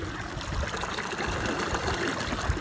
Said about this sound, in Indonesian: Sore ini aku lagi melihat Lahan sawah ibuku Yang ada di Sumatera Barat Sawahnya lagi kering Lagi dialirin sama air Yang bunyinya itu nih kalian dengar